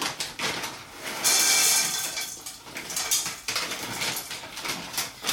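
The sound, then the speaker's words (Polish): A little more than a handful of pumpkin seeds pour into a pan of heated olive oil in a steady, dense rattling patter, fairly loud, with a few surges as more seeds tumble in. No one speaks. “To teraz wsypię e, pestki dyni.”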